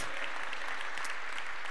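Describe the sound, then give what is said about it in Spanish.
A church audience claps steadily for God, a dense, even wash of many hands applauding at a constant, fairly strong level throughout, with no voices standing out above it. “y tú das gracias a Dios, dale un aplauso a Él, porque es para Él.”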